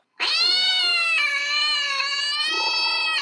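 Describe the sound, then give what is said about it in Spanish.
A cat near Luis's window on a cold night lets out a single long, loud, wailing meow that holds steady for about three seconds, clear with no other sounds around it. “Era una noche fría cuando cerca de la ventana de Luis maullaba un gato.”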